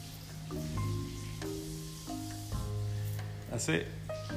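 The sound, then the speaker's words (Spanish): Steady hiss of running water as someone washes dishes, continuous throughout at a moderate level, with people talking over it. “Disculpen el sonido de agua, que la fiera chiquita está fregando.”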